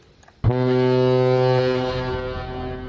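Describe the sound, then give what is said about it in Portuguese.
The ferry Lobo Marinho sounds its horn as it departs the Port of Funchal, Madeira, for Porto Santo at 8 in the morning: one long, deep, loud blast that starts abruptly after a moment of low background noise and holds steady, slightly fading toward the end. No one speaks. “8 horas da manhã, o navio Lobo Marinho parte do Porto do Funchal com destino ao Porto Santo.”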